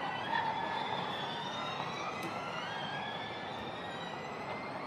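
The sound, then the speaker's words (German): Formula E electric race cars whine past on a track at Tempelhof in Berlin, their high gliding motor tones rising and falling over a steady roar of crowd and ambience, with no talking. “Ja, das ist natürlich der Formel E-Track, den ihr hier hört, in Berlin am Tempelhof, äh, Tempelhofer Platz.”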